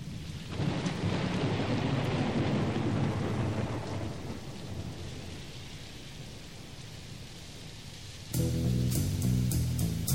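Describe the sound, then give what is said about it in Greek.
Heavy rain pours steadily while deep thunder rumbles loudly through the first few seconds, then eases into a continuous storm hiss; near the end, a sustained musical tone swells in over the rain. “αρκεί να φανταστούμε την χειρότερη καταιγίδα που έχει καταγραφεί στην ανθρώπινη ιστορία.”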